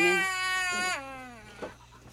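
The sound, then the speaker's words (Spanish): A slightly sick baby girl cries in a loud, wailing burst that bends downward in pitch, followed by a softer whimper, clear with no talking. “Es que estaba un poquito enfermita, por esta llorón.”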